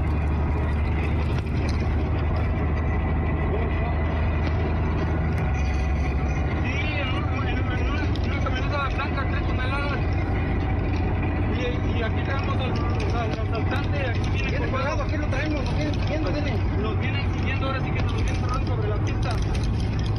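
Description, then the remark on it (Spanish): A tractor-trailer truck drives along the Puebla–Córdoba highway in Mexico with an assailant hanging from its door, with a steady, loud engine rumble and road noise throughout, as muffled voices talk faintly beneath the continuous drone. “Asaltante va colgado de la puerta de un trailer”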